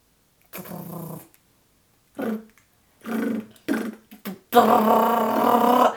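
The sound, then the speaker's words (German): A voice attempts a rolled R: a few short, guttural, rattling bursts separated by pauses, then one long, loud buzzing trill that chatters like a jackhammer. “Bei mir hört sich das an wie so eine Bohrmaschine.”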